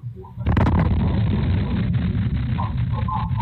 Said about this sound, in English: Boom. The loud boom sent a shockwave through this quiet community Tuesday night around 7 o'clock.